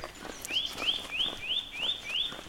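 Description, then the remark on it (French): A bird sings a quick series of six bright, rising chirps at a steady rhythm, clear over faint outdoor background noise. “Les oiseaux chantent, c'est le bonheur.”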